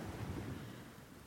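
Ocean waves roll and wash steadily in a broad, low rumble, with a soft hiss of surf fading slightly over the short stretch. No voices are present.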